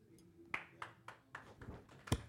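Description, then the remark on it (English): Scattered hand claps from a small group of party guests at a 60th birthday celebration, about seven distinct claps at a slow, uneven pace, fairly quiet, with one sharper final clap and no talking. “Yeah, round of applause.”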